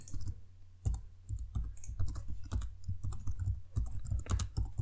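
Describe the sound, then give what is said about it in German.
Steady keyboard typing as someone types a search into Google, a run of quick, irregular clicks and taps, with a low constant hum underneath and no voices. “Ja, ich tippe sehr langsam.”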